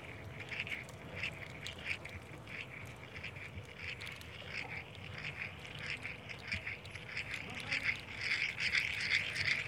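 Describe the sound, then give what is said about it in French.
Birds call repeatedly outdoors in sunshine among pines, rocks and small shrubs, a steady stream of short, raspy, quacking-like notes overlapping one another at a moderate level, with no one talking. “Euh, autour de nous, il y a des pins, une- des rochers, une- des petits arbustes et euh, des oiseaux.”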